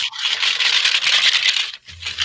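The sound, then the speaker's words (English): Dice rattle continuously for about two seconds, a bright clatter of small hard pieces being shaken, pausing briefly near the end before starting again. No one speaks. “got my dice. You do have dice. My dice are here somewhere.”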